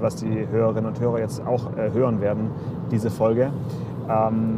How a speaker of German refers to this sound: ich rufe dich heute aus dem Auto an, deswegen bitte ich die äh, Nebengeräusche zu entschuldigen. Ja, ich äh, entschuldige. wir, telefonieren, wir telefonieren per Autotelefon ähm, und ich denke, dass die Reifenabrollgeräusche das lauteste sind,